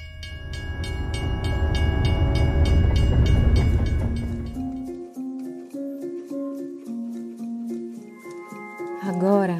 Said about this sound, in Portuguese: te convido para embarcar novamente nesse trem